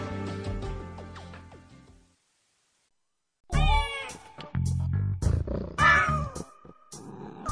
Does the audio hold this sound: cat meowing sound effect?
yes